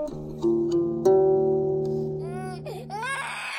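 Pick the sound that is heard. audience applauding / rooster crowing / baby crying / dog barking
baby crying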